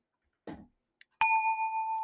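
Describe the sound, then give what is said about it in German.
Glasses clink once in a toast, a bright, sharp strike that keeps ringing with a clear, bell-like tone. A soft muffled knock and a faint tick come just before. No one speaks. “Lass uns drauf anstoßen.”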